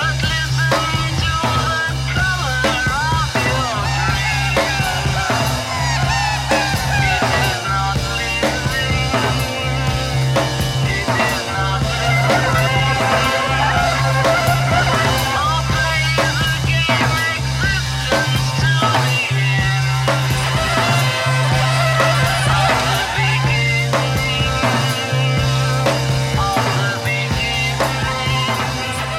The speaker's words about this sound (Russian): Это истинно психоделическая композиция, описывающая путешествие